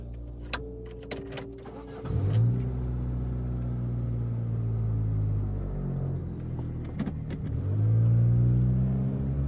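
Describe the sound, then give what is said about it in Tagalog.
A car engine revs up while someone drives the car alone on a test drive before paying for it, its low drone climbing in pitch, holding steady, then surging again near the end. A few sharp clicks come first, and there is no talking. “So, para akong bumili ng laruan, Tines drive kong muna yung kotse, siyempre. Bago ko pinayaran, sumakay akong mag-isa.”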